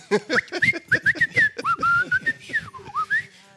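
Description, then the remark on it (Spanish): A person whistles in a steady run of short, wavering glides that rise and fall, imitating the moan of a cold draft coming in through a door. No one talks. “Cierra cierre la puerta porque se mete el chiflón.”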